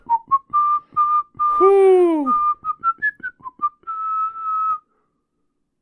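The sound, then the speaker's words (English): A person whistles a bouncy, carnival-like tune in short staccato notes, broken by a rising vocal whoop in the middle, imitating the notes a calliope plays in a movie. Clear, lasting about five seconds. “Is that your calliope noise? Yes. It's literally the notes that the calliope does in the movie.”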